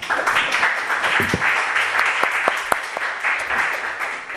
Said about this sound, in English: I would like to um, give them a lot of thanks for their patience with me and for their kindness and for the education that they have given me. So, uh, without any reservation, I would like to offer them a hand of applause.